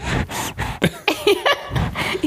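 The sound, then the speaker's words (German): Heavy, puffing breaths blown straight into a microphone: a rapid series of loud, rough, hissing bursts, with a few short voiced grunts mixed in between them. “Nee, ich schnaufe nur ins Mikrofon.”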